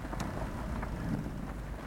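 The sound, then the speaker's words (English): A thunderstorm sound effect played during a retelling of the disciples on a boat in a storm on a lake: steady, hissing rain with a low rumbling undertone and a few faint crackles, fairly quiet and continuous throughout, with no one talking. “Can you turn the storm up a little bit, Josh?”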